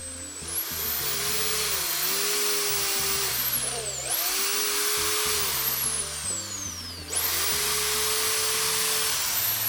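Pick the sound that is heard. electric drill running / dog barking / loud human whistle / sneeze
electric drill running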